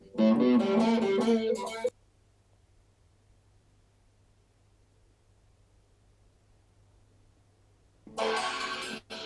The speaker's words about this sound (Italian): la loro versione si torna al suono di … e ha tanta distorsione ed è, diciamo, completamente diversa